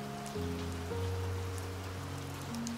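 Steady, even rainfall patters without pause, blended with soft sustained musical tones that shift slowly in pitch. No voices; the whole scene stays quiet and calm.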